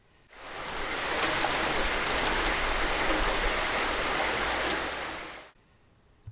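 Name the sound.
light drizzle falling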